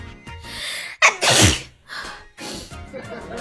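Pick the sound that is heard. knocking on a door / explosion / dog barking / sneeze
sneeze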